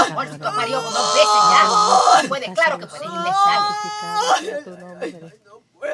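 A woman cries out in long, strained wails and moans, two drawn-out anguished screams close by, fading into ragged breaths at the end.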